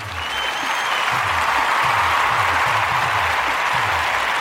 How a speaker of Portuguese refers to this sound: Salva de palmas para Terra Brasilis.